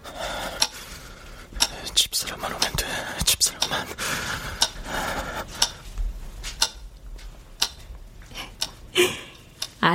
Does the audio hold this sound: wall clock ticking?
yes